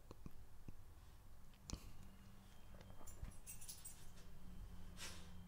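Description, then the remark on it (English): A dog named Nikki shuffles close to the microphone, with soft rustling, scattered clicks and brief metallic jingles, like collar tags, over a low steady hum and no talking. “My dog is bugging me.”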